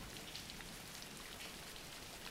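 Steady rain falls continuously, a dense, even hiss of drops pattering on a surface with no pauses. Soft background level, no voices present.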